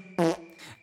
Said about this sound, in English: No, that was me. Pardon my wind.